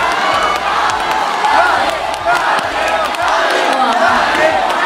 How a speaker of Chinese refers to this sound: 我们来听听现场那天他在演唱这首歌曲，嗯、歌迷朋友和他一起合唱的部分。